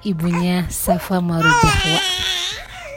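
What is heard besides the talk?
baby crying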